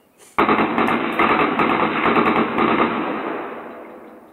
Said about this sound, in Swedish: Det blir tyst och sen hörs flera skott.